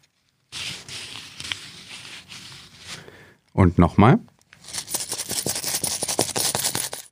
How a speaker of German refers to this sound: Ja, Sie haben es natürlich längst erkannt, Geldscheine und Münzen waren das.